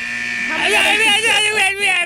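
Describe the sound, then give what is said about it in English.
A 60-second timer buzzer sounds continuously, a steady high-pitched electronic tone lasting about two seconds, while a person's voice, wavering and laugh-like, overlaps it throughout. “there goes the buzzer.”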